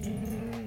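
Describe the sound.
A female yellow Labrador in a room lets out a low, sustained groan with a rough, grunting edge, fairly quiet, lasting under a second with no talking over it.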